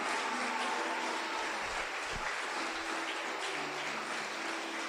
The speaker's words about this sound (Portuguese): Agora aplauda com alegria o Rei da Glória.